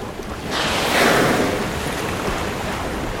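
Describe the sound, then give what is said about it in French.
A wave surges and crashes against sea cliffs on the south coast of England in a loud, broad rush of water, then settles into a steady roar of surf with wind, no voices present. “J'entends le bruit des vagues qui se fracassent contre les falaises.”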